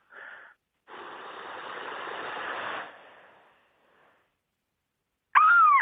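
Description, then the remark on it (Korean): A voice imitates wind and seagulls at Cheonjin Beach in Goseong: a long breathy hiss of wind swells and fades for a few seconds, then after a pause a loud, high, wavering seagull cry begins. “어, 바닷가 위에 있는 갈매기 한번 해보도록 하겠습니다.”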